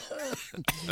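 A single short, sharp cough, preceded by a brief breathy throat sound, standing alone without talk.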